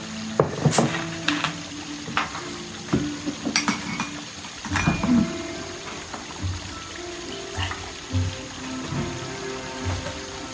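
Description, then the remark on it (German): A drink is poured into a glass, with a steady watery trickle and a few sharp glassy clinks near the start and middle, fairly quiet, with no voices. “ähm, kannst du mir auch mhm. was einschenken?”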